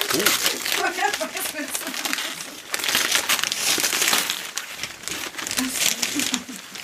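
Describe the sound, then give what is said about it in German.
Paper crinkles and rustles continuously as a gift is unwrapped, with dense crackling bursts and tearing textures throughout, while voices murmur faintly underneath. “So, ich pack jetzt auch mal eben kurz aus.”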